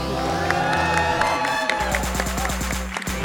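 A crowd cheers and claps loudly and steadily, with whoops and high shouts over dense applause, while a pulsing low musical beat runs underneath.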